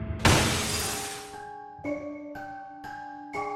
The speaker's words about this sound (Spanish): Y en cuanto terminó de decir eso, escuchamos un fuerte golpe en la puerta de cristal de uno de los refrigeradores.